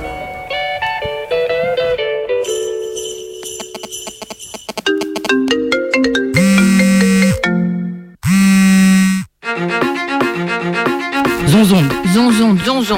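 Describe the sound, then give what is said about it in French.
A radio show jingle for a special year-end live broadcast for prisoners, from the Radio Méga studios in Valence, France, plays for about thirteen seconds: loud, bright electronic melody notes stepping up and down, with chiming tones, two heavy bursts midway, and a voice-like sung or spoken part near the end. “On écoute le jingle.”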